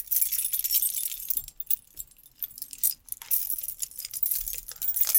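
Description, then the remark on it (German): A bunch of eleven keys on a keyring jangles and clinks in bright metallic bursts, with a brief lull in the middle before the rattling picks up again; no one speaks. “ich hasse meinen ich Schlüsselbund”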